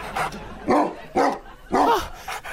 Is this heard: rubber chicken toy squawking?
no